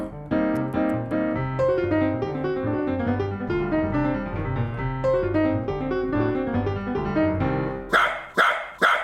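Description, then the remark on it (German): A small dog, a dachshund, gives three quick, sharp barks in a row at the very end, after a long stretch of steady, tuneful music with sustained notes. “Mein armer, süßer Dackel, der ist doch noch so klein.”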